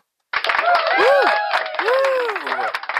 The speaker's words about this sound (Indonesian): Tepuk tangan dulu, tepuk tangan.